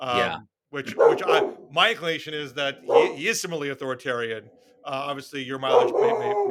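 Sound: dog barking and whimpering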